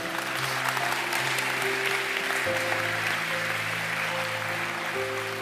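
Steady, dense audience applause runs for about five seconds at an even loudness, with sustained musical chords humming underneath that shift pitch partway through.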